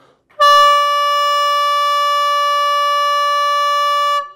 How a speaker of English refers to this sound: one long blast of the trumpet for a gathering together.